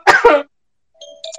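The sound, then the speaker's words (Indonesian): Two quick, harsh coughs in close succession after choking, loud, followed by a short pause and some faint, thin tonal sounds in the background. “jadi keselak.”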